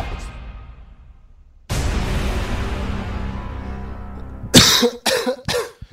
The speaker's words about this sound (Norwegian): Du driver på og hoster, ja. Skiskytterlunga som eh, er helt ødelagt.